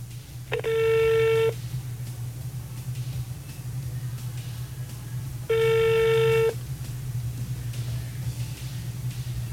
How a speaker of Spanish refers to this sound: Déjeme llamar a Cambita para averiguar. Vamos a ver. Estoy llamando.